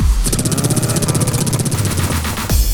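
A loud, throbbing V12 car engine roars continuously for a few seconds with a fast rhythmic pulse, powerful, then cuts off abruptly near the end. The car is a BMZ.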